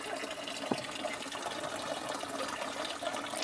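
Water pours steadily into a container as people fetch themselves water, a continuous rushing, splashing wash of sound that stays fairly even throughout, moderately quiet, with no talking.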